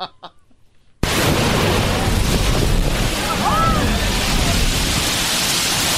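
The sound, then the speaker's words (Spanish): A brief voice gives way to a sudden, loud whoosh as the sea blasts through the blowhole at La Bufadora, followed by a steady roar of surf and spray that continues to the end. “la bufadora donde fue el diablito”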